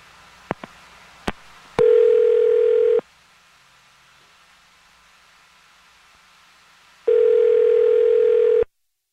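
A few faint clicks, then a telephone ringback tone sounds twice while a radio show places a phone call, each steady electronic buzz lasting over a second with a long quiet gap between. It is loud, with no voices.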